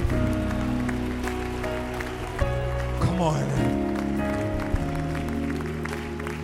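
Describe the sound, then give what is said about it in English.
A church audience gives a standing ovation, clapping steadily and loudly throughout, a dense wash of applause over sustained organ-like music, with a man's voice briefly calling out above it. “Come on, can we give them a standing ovation? Can we clap those hands and give”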